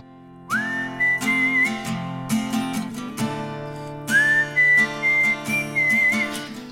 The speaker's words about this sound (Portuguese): É, depois a gente vai falar desse assobio aí, que é uma outra coisa que eu tenho curiosidade.